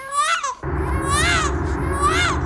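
A baby cries in three high, wavering wails, the later two rising and falling in pitch, loud over a steady low rumbling noise that starts after the first cry.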